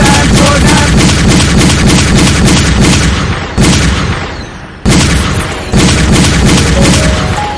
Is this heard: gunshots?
yes